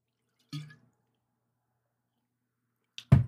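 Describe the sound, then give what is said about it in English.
Whiskey is poured out as a tribute in two short bursts: a brief glugging splash, a few seconds of silence, then a louder splatter at the end. “I'm a pour one out for you.”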